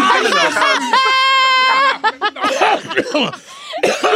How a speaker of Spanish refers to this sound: Ay, me dio tos.